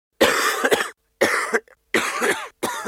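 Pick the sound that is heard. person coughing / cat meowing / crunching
person coughing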